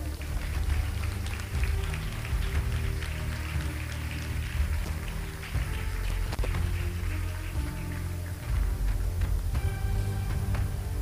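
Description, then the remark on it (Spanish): An audience claps hands for God in a dense, sustained burst of applause lasting the whole stretch, loud and even, with faint instrumental tones sounding underneath. “Den palmas a Dios, pues.”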